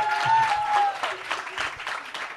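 A crowd applauds steadily, a dense wash of overlapping claps that stays fairly loud for a couple of seconds, with a brief tonal whistle or squeal early on.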